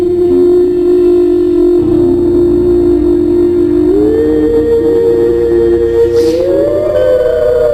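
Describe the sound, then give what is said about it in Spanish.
Horns and whistles blare together in a loud, unbroken drone whose pitch steps up a couple of times, with a brief high squeal near the end and no talking. “Es increíble. Ahí los pitos.”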